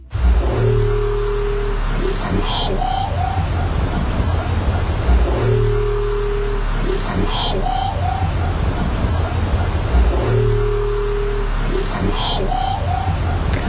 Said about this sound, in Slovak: E, vráskavce, vráskavce sa vraj nevedia dorozumievať v mori, pretože je tam príliš hlučno. Nám aj prišlo také zaujímavé si vypočuť, že ako vlastne vráskavec znie, tak si môžeme teraz dať malú ukážku.